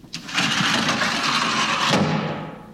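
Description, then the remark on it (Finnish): A locker door slams shut with a sharp thump, then a loud, sustained metallic rattle and rumble that carries on for a couple of seconds, with another knock partway through. No one speaks. “Noin se jyrähti kiinni”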